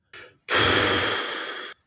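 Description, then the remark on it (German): A short sniff followed by a loud, drawn-out, forceful huff of breath through the nose, lasting over a second with no talking. “Was schnaufst du denn da jetzt bitte?”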